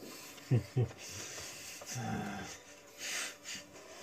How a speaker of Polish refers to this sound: Nie słyszę cię, bo za, za głośno chrupię.